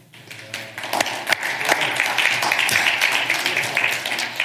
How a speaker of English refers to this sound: We're clapping for Jesus because he's amazing and because God loves all people